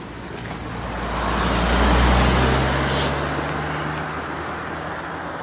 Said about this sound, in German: ist aber reger Verkehr.